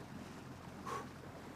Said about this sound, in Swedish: Vågorna skvalpade ännu skrämt runt det vita skalet. Då båten var stilla och bara guppa från sida till sida liknade den ett jättelikt äggskal.